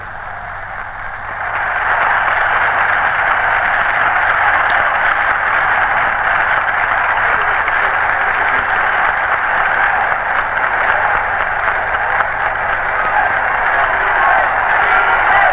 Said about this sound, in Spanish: Ha ganado Chile 2 a 0. Se requiere al equipo itálico y Chile ahora en el círculo central recibe la ovación. Escuchen.